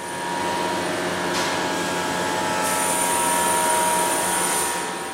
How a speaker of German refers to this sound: Kompressoren füllen die riesige Halle mit ohrenbetäubendem Lärm.